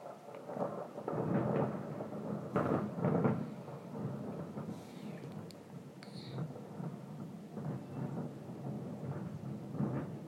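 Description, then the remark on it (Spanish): Steady rain falls throughout, a dense hiss with low rumbling that swells and fades, suggesting thunder rolling behind the downpour. “Está lloviendo por eso.”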